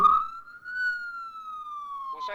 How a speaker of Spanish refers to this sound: ¿Sabes qué me gusta de, esto? El, sonido ambiente. Hemos escuchado sonido de ambulancia, esto calculo que es el sonido de policía, como para ver, che, esto es real, estamos, en, real, estamos tiempo real.